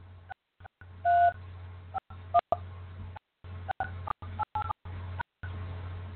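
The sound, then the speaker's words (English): A quick sequence of touch-tone keypad beeps as a host PIN is entered on a Blog Talk Radio call-in line, about a dozen short tones at an uneven pace, with one longer tone, over a steady low hum on a phone line. “Please enter your host PIN. When finished, press the pound key.”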